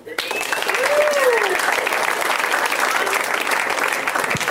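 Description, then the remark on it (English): Loud, steady applause from a theater audience at the UCB Theater welcoming a comedian, dense clapping sustained throughout with a few whoops and cheers rising above it. “Please make a loud for”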